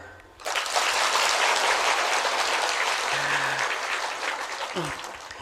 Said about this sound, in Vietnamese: ai đồng ý vỗ tay